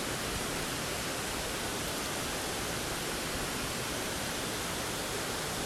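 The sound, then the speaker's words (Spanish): Steady, full rush of flowing water, like a stream or small waterfall, holding an even level throughout with no breaks and no voices. “Escucha el fluir del agua.”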